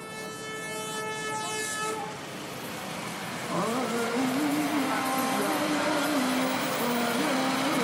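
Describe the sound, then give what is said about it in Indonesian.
On an evening at Duri station in Kampung Duri, Tambora, West Jakarta, a train sounds a long, steady horn over continuous rumbling rail noise, then the melodic chanting of the maghrib call to prayer rises above the ongoing din. “Suara kereta dan azan maghrib bersaut-sautan mengiringi langkah kami.”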